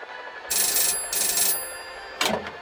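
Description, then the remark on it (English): Two bright, buzzy telephone ring bursts of equal length sound with a short pause between, as on an outgoing call to Tom's garage, then a third begins and cuts off abruptly. No voices are heard. “Calling Tom.”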